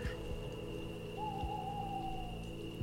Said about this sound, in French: Il fait complètement nuit. À part le bruit du vent et le cri d'un hibou, vous n'entendez plus rien du village.